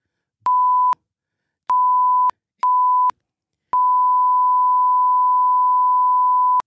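A loud, pure censor bleep tone sounds four times: three short bursts with brief gaps, then one long, steady beep lasting nearly three seconds, with faint clicks at each cutoff and no voices.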